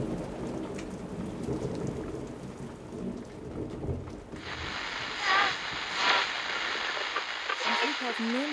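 A deep, rolling rumble of thunder fills the opening seconds, then a loud, steady downpour of heavy rain hisses in and continues to the end, during a thunderstorm in Franconia, Germany.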